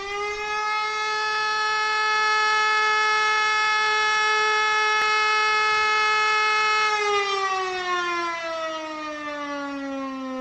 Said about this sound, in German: Er besteht meist aus drei Sirenentönen, zwölf Sekunden lang und im Abstand von zwölf Sekunden und dient vor allem den Mitgliedern der Freiwilligen Feuerwehr. Der ist allerdings meist nur in ländlichen Gegenden zu hören.